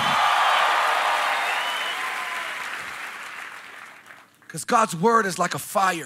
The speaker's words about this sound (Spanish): Alguien aplauso aplauda como si lo creyera. Aplaudan como si creyeran la palabra de Dios. Aplaudan porque están de acuerdo. Griten porque están de acuerdo.